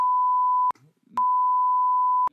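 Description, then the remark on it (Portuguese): Two loud, steady censor bleeps, one short and one longer, cover names in the speech, with a brief fragment of a voice audible in the gap between them. “Bipa ou não bipa os nomes?”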